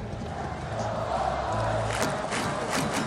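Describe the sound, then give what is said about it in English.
A crowd at an Oakland A's home baseball game cheers in a steady, dense roar, with scattered shouts and sharp bursts of noise rising out of the crowd toward the end. “Listen for Tom and the sounds of Oakland on every A's home broadcast.”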